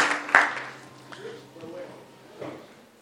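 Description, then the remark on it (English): An audience's applause for the Lord during a church service, a brief patter of many clapping hands that quickly fades into a few scattered claps, with soft murmuring and shuffling underneath. “Clap your hands together for the Lord, and you may be seated.”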